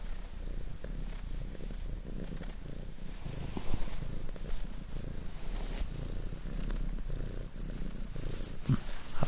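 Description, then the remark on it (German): A cat purrs steadily, a low continuous rumble with a soft rhythmic pulse that carries on unbroken for the whole stretch, with no voices. “Ja, okay, ich sage mal bis später und übergebe das Wort an die Katzen.”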